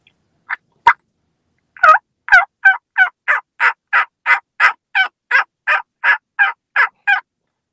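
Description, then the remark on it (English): A person imitates a turkey hen's simple yelp by mouth, without using any call: a few tentative notes, then a steady run of about fourteen sharp, raspy yelps in quick even rhythm, fairly loud with no talking. “I'll start out with the uh, uh, simple hen yelp.”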